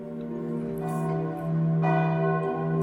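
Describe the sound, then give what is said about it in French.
Church bells of the citadel ring out at sunrise in a rich, overlapping peal, their sustained tones layering and swelling as new strikes join in, with no voices present. “les cloches de la citadelle sonnent le lever du soleil.”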